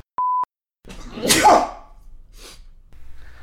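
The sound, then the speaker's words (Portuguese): A short steady beep tone, then a man gives a single loud, explosive sneeze with a sharp hissy burst that quickly trails off into quiet background noise. “Ó, oh, gente, desculpa aí pelo cara que espirrou, tá bom?”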